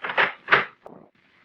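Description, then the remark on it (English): An office door in a brand new building opens and closes: two quick scraping, rattling bursts of movement, then a muffled thud as it shuts, fading into near silence. “I stepped outside the office door and walked over to the brand new stairway of that brand new building.”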